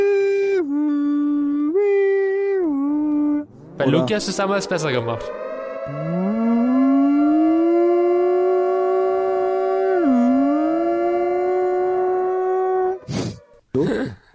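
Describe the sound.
A voice imitates a siren as a spoiler alarm, with a long, wavering tonal wail that rises and dips in pitch, interrupted briefly by a short burst of speech before the sustained howl resumes and swoops upward.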